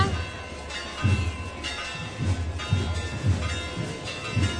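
Bells of the Santa Iglesia Catedral in Huelva peal with sustained, humming overtones, while low, uneven thumps recur about once a second beneath them; no one speaks.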